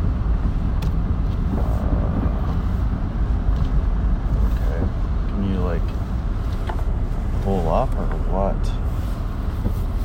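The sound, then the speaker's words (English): A car engine rumbles steadily as it pulls up and idles, a low continuous drone filling the scene, with a few brief voices murmuring over it. “There's the car.”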